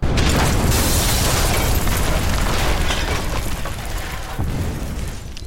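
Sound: explosion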